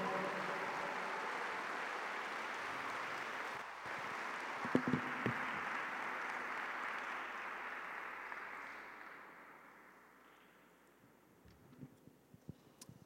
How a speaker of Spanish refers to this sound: Dale un fuerte aplauso a Jesús. Vamos, dáselo fuerte, fuerte, fuerte.